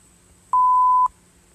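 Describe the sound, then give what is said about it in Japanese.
A single loud, steady electronic beep lasting about half a second, a clean pure tone standing alone over faint background hum with no talking. “ピーっていう、なんかこう、よく、私がホラーゲームの実況を見ているせいなのかわかんないですけど、こう、何々だ。”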